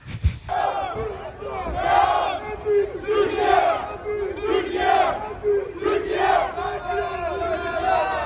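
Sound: football fans shouting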